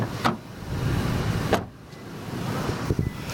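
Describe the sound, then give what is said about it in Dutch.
Someone climbs out of a car in the centre of flood-hit Derna, Libya: a few sharp clicks and thumps from the door and seat over a low steady rumble of engine or road noise. “Ik eh, stap nu uit de auto in eh, ja, het centrum van Derna of wat er van overblijft.”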